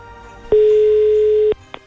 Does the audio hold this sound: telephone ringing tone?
yes